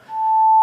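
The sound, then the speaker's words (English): A pure, steady sine tone at 880 hertz, an octave above A, made by multiplying a 440 hertz A by two, holds unwavering for under a second before cutting off with a faint click. No voices are present. “Let's multiply it by two.”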